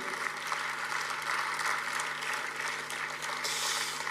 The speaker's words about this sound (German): Darum vielen Applaus mal.